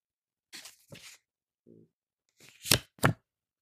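Playing cards handled in flourishes by a man demonstrating card moves and shuffling: a soft, fluttering riffle, a brief faint hum, then two louder, crisp snapping bursts of cards close together. No one speaks.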